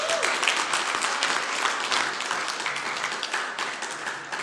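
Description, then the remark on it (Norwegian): A crowd applauds steadily after a Bible reading, a dense, even wash of many hands clapping at a fairly loud level for several seconds with no talking over it. “Han burde få større applaus enn det han fikk nå.”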